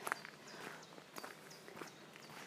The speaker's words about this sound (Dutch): Ik vind dat gewoon geweldig om te horen elke keer die stap en het kraken van de kiezels. Dat geeft mij rust en ook een goed gevoel dat ik in beweging ben.